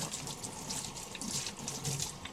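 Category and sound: household object, running water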